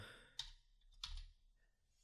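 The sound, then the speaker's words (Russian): Two sharp computer keyboard clicks about half a second apart as someone types a web search, sparse rather than steady typing, with faint background noise and no voices. “Может быть, я загуглю, а никого не будет бомбить звук клавиатуры на заднем фоне.”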